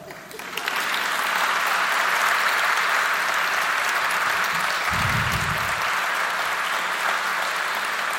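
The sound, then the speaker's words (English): A crowd in Baltimore bursts into sustained applause welcoming former New York Times food critic Ruth Reichl, dense and steady clapping for several seconds, with a brief low rumble partway through and no talking over it. “You may clap right now.”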